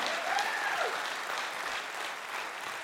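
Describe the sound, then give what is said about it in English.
An audience applauding together for God during a sermon on Psalm 66, a steady dense wash of many hands clapping at an even loudness for the full few seconds, with a faint whistle or cheer rising briefly near the start. “All together now, applause for God.”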